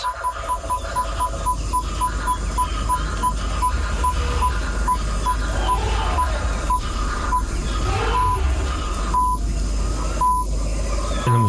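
Steady, clipped beeping tones pulse in short and long bursts like Morse code, sitting over a constant wash of radio static and hiss for the whole stretch, with no voices.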